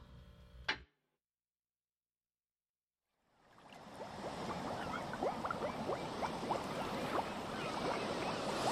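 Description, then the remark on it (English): A short burst of noise cuts off into silence, then steady Atlantic Ocean water swells in, with waves sloshing and splashing around a boat, fairly loud, no voices. “I'm coming to you live from the Atlantic Ocean.”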